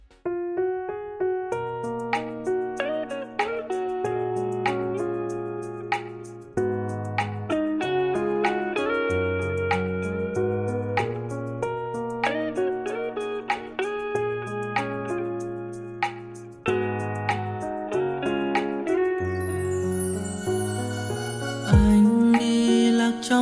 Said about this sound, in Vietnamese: hãy cùng đến với âm nhạc để thư giãn một chút xíu nhé